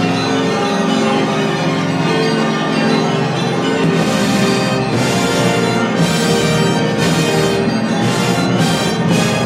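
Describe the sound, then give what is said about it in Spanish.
Church bells clang repeatedly over a loud, full orchestra playing a dense, triumphant passage celebrating the Russian victory, with bright metallic strikes recurring every second or so. “y finalmente suenan campanas y fuegos artificiales que celebran la victoria rusa.”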